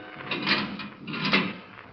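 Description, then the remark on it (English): A heavy steel door in the Marquardt building is dragged open in two grinding, scraping pushes with a faint metallic squeal, moderately loud, with no voices. “The steel door was being opened.”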